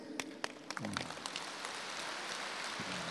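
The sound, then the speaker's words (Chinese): An audience applauding after a question is put to a Buddhist master: a dense, steady patter of many hands clapping, fairly soft overall, with a few sharper individual claps standing out in the first second. “你看这个问题一问，很多人鼓掌了，说明很多人都是这样。”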